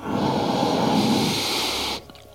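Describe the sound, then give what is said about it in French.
A single long ujjayi inhalation during a breathing exercise, a steady throaty hiss drawn in for about two seconds, then cutting off abruptly into near silence. “Alors en grosso modo, en quoi ça consiste On inspire un temps, donc ou en ujjayi ou respiration normale.”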